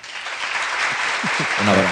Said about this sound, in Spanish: un aplauso para todos.